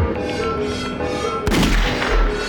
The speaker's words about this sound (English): Gunshot for the puppy.